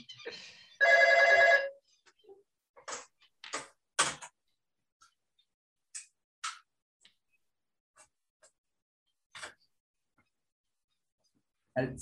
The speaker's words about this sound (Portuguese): As cobranças não, não param de ligar. é, é, é telefone ou é cobrança ou é querendo vender Nossa. alguma coisa, né?